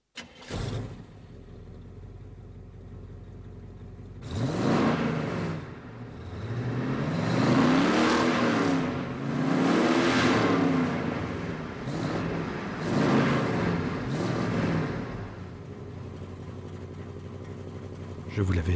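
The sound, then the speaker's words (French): A low idle rumble gives way to the engine of Christine, the car from John Carpenter's film, roaring and revving hard several times in rising and falling surges before settling into a steady, loud drone. “C'est parti, on monte en voiture.”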